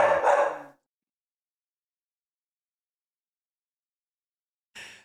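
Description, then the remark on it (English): A dog lets out a loud bark at someone walking by the front of the house, then falls silent for several seconds before a second bark starts right at the end. “Sorry, my dog decided to decided to. There must be somebody. How dare they walk by the front of our house?”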